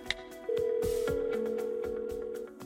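A quick electronic beep as a call is placed from an iPhone, then a steady telephone tone holds for about two seconds, clear, with a second lower tone joining partway through. No one speaks.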